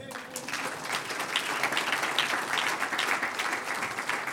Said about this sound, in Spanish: En el nombre del Señor Jesús, un aplauso.